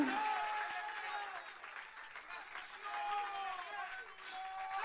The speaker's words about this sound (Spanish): Dale ese aplauso de alabanza, Jesús.